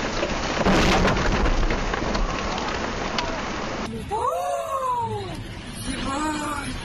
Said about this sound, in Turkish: Kamp yapmaya gittikleri gölde fırtınaya yakalandılar. Ağaçlar kamp alanındaki ev ve çadırların üzerine devrildi.